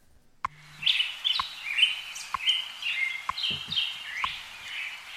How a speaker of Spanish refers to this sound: Pues ya están los pajaritos de Radio Hora. Hoy están muy contentos porque es el Día Mundial de la Radio. Ellos también forman parte de la historia de la radio española y nos indican cada mañana la hora exacta de cuando amanece en Madrid